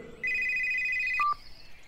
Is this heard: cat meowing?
no